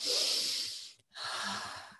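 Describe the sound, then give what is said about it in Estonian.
Two deep breaths demonstrating calm breathing: a long airy inhale followed by a brief pause and another full, noisy breath, heard alone without any talking. “minu praegusest kahest hingamisest juba nagu vuu hakkab liikuma, eks ju.”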